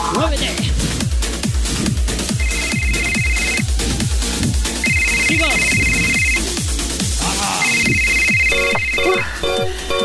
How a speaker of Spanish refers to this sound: Perdón. Ay, perdón, dame un segundo, que me has pillado en clase de spinning. Madre mía, la acabo de liar con el teléfono sonando en medio.